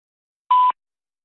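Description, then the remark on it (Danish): A single short answering-machine beep, a steady electronic tone lasting about a quarter second, framed by faint line crackle and clicks at its start and end, with silence before and after. “Det var en telefonsvar, Kirsten.”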